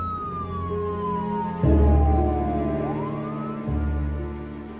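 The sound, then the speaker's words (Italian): An ambulance siren wails loudly, its pitch sliding slowly downward and then rising again, over a heavy low engine rumble. No one speaks. “E passo la mia serata in ambulanza.”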